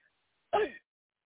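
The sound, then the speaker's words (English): After a deep breath, a single short, forceful cough from the gut bursts out once after a moment of silence, fairly loud, rough and throaty, then cuts off quickly back into quiet. “Everybody take a deep breath and cough from the gut.”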